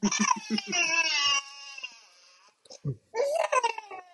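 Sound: baby crying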